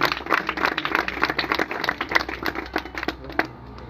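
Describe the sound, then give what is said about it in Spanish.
A church audience breaks into steady applause for God during a sermon, dense overlapping claps sustained for several seconds at a fairly loud level, with no speech over it, thinning slightly toward the end. “Dale un aplauso al que vive y reina.”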